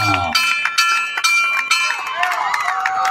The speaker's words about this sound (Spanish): en vivo desde el gimnasio Andrés Mena Montijo en esta ciudad donde el sol no duerme ni deja de brillar. San Luis, Río Colorado, Sonora, México. Que se escuche la campana.